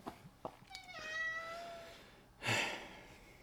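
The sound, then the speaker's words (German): A cat meows, wanting affection: a drawn-out tonal call that rises and slides down, followed a moment later by a short, breathy, noisy burst like a snort or chirp. No one speaks. “Ich hoffe, ihr hört das. Meine Katze, die ist jetzt gerade liebesbedürftig.”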